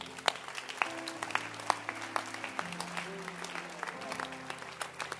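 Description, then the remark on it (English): An audience claps their hands for a man, a dense, irregular patter of sharp claps that continues at an even loudness for several seconds over a low, sustained tone and faint voices. “Clap your hands for him.”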